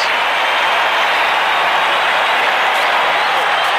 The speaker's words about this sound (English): What a reaction by this capacity crowd. Yeah, some, the fans are reacting to something that's overhead.